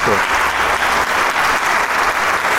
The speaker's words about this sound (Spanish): Sienta los aplausos del público que está presente y que se le entrega a Camerata de Coahuila esta noche por una gran, gran interpretación de este concierto, este primer concierto temporada primavera-verano 2021.